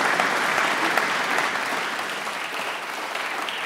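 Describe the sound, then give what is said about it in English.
Steady applause from an audience for Mehreen, Australia's first Muslim female senator: dense crackling claps sustained at an even, fairly loud level throughout with no pauses or voices breaking through. “Before I go on, that deserves a round of applause in its own right.”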